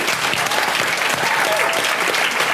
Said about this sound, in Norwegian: Tusen takk til alle dere som kom. Gi dere selv en liten applaus.